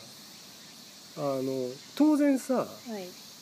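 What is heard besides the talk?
cicadas buzzing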